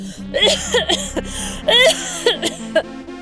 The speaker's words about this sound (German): Das Husten wollte nicht mehr aufhören.